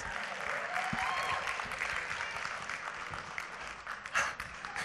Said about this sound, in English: So, would you give him a round of applause?